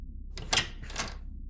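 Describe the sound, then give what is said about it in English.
A door being opened for a visitor: two quick rattling clunks from the latch and handle about half a second apart, soft, with no voices. “Come in. Oh no, the door's the door's not. Uh, hold on. Uh, Let me get this.”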